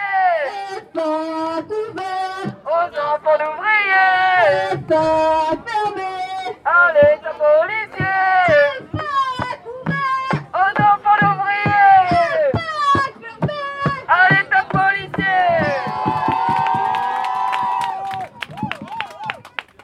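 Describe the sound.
A crowd of supporters waiting by a gate chants slogans in loud, rhythmic unison, voices rising and falling in repeated phrases, with bursts of clapping and cheering woven through the chanting.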